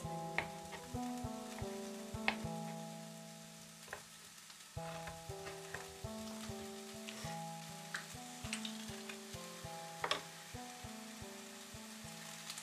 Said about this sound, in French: Euh, moi j'ai l'habitude, ouais, oui, j'ai l'habitude de cuisiner euh, dans l'appartement, euh, de faire mijoter des choses et puis de rester dans le salon, de l'entendre de là et, et puis de me dire oula, là c'est en train de déborder